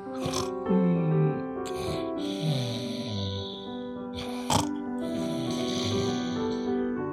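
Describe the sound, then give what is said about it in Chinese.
QQ Pig, a story character, snores fast asleep in its room on a sunny morning, with grunting, snorting breaths and drawn-out tones that slide up and down in pitch. The snores repeat steadily at moderate loudness, and no one speaks. “在某一个天气晴朗的早晨，QQ 猪还在房间内呼呼大睡。”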